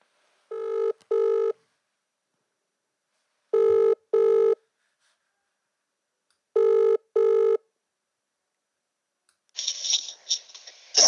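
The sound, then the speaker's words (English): A phone call to someone on the Gold Coast rings three times, each ring a quick double burst of electronic tone with pauses between, followed by a short rustle of noise at the end. Nobody speaks. “And I thought, uh, what better way for you guys to sort of understand more about what he does uh, in his everyday life than to bother him with a phone call.”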